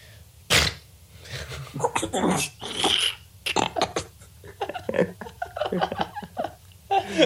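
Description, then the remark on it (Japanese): A person imitates a dog sneezing: a sharp snorting burst, then a few quicker sputtering sneezes, followed by people talking and chuckling. “犬のくしゃみのものまって俺初めて聞いた。”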